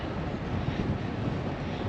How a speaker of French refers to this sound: Eh ben, le vent souffle bien toujours. Hein. Nord vers le sud, en plein dans la bouche.